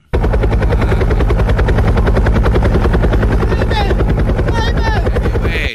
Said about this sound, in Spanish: ¡Ey! Ya sabemos cómo le hace el helicóptero, no es ah, necesario.